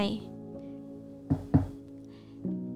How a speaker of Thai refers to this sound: เสียงเคาะประตูดังขึ้น